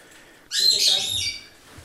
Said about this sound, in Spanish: A los pájaros, aunque no estén a distancia, se les escucha ah, perfectamente. ya. ¿Cuántos tenéis en, dentro de casa? Uh, no los hemos contado. Ni sabéis. No.